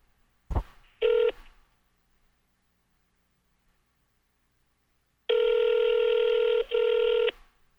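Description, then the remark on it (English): A click and a single short touch-tone beep as a phone number is dialed, then after a pause a loud, steady electronic ringing tone that breaks briefly once before continuing. No voices are heard. “Oh, that's oh, ringing.”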